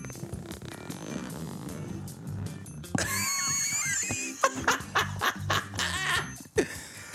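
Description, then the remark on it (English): A raspy zipper being unzipped in a long drawn-out pull, followed by several shorter rough bursts, with laughter breaking out around the sound. “I'm gonna unzip it.”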